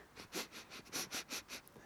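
A person leaning over a puddle of water in a garden gives a rapid series of about eight strong, airy sniffs in a steady, quick rhythm, each a short breathy hiss, with no talking.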